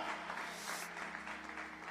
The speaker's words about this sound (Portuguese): Aplaudam e adorem em nome de Jesus Cristo. Aleluia!